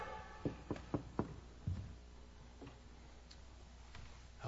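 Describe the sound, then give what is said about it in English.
Four quick, evenly spaced knocks on a door, followed by a duller thump and a few faint taps, otherwise quiet, with no one speaking. “Knock Knock! Is anyone there?”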